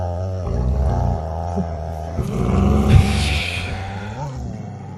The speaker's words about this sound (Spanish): cuando de pronto el silencio se vio roto por un sonido gutural parecido a un gruñido grave.